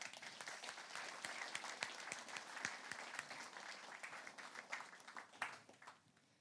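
An audience applauds steadily for Trønderhopp, a ski jumping team in Trøndelag, Norway, marking its 35th anniversary. A dense wash of many hands clapping with sharp individual claps poking through, sustained at an even level before tapering slightly at the end. No one speaks.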